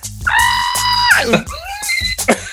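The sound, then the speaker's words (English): A voice imitates the scream of a woman who ran into the corner of a communion table: a long, high-pitched wail that sustains, then breaks into shorter strained cries, loud, with a low rhythmic thumping underneath. “so the, the scream is like,”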